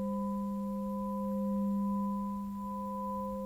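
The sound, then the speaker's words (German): A blacksmith's newly made S-shaped metal bow is struck to test it for cracks, ringing with a bright, pure, sustained tone, several clear overtones humming steadily for a few seconds with no voices. “Der helle, reine Klang bestätigt ihm, dass sein Bogen keinen Riss hat.”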